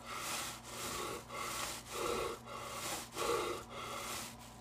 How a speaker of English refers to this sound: I took an actual inhale there. Still got it.